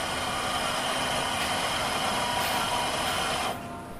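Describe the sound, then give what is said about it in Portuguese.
A coffee machine lets out a loud, steady hiss of steam while a coffee is being made, like a steam train venting, which holds for a few seconds and then cuts off abruptly to a quieter background. “Segue-se o som de algo que mais parece um comboio a lançar vapor.”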